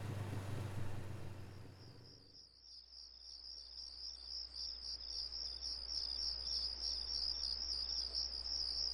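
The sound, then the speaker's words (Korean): A steady, high-pitched chorus of grass insects chirping continuously on a quiet, pitch-black night, following a brief low rumble of a passing engine that fades out early on. “풀벌레 소리만 들리는 이 칠흑 같은 얼음 속에서 빨리 벗어나고 싶다.”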